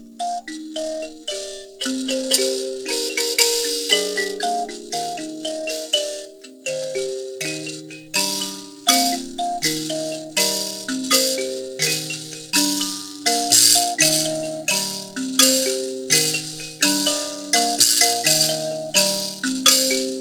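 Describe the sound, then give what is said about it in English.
Shona music with buzzing percussion: bright plucked notes repeat in a steady interlocking pattern, each one trailed by a sizzling, rattly buzz, playing continuously at moderate volume with no voices. “Um, usually, a buzzing sound isn't part of uh, a Western classical instrument, but it's definitely part of the Shona music tradition.”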